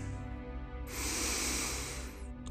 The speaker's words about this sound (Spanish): Inhalar y exhalar.